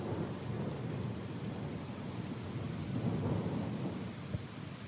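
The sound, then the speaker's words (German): A thunderstorm: heavy, steady rain hisses over a continuous low rolling rumble of thunder, fairly loud, with no voices throughout. “Entweder ist sie weggeschwommen oder vom Blitz getroffen und ausgebrannt.”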